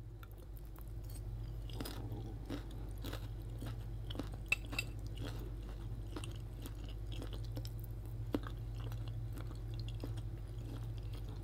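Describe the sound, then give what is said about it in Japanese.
Close-up chewing of soft bolognese pasta, a main dish called Positive Bolognese, near the microphone: wet smacking and squelching repeating in an uneven rhythm for several seconds over a low steady hum, with no talking. “ちょっとね、食感をね、聞いてほしいから、近くで、近くでいこうね。”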